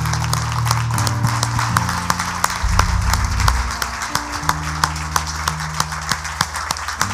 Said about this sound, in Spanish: Amén, para gloria de Dios. Dar un fuerte aplauso al Señor.